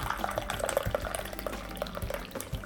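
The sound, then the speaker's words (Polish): Tea is poured steadily from a small pot into a porcelain cup, a continuous trickle with small splashes and a gently shifting gurgle, with no voices. “Bardzo proszę, nalewam herbatkę.”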